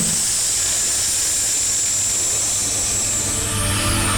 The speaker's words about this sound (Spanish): Y estiras los labios como para como cuando te preparas para dar un beso. ¿Vale? Y делаете вдох, сильный вдох через губы. Inspiras fuerte por la boca, los labios, así.